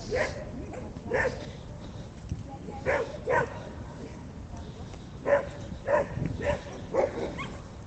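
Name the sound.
dogs barking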